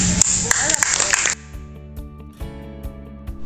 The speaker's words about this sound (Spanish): Eso es un aplauso.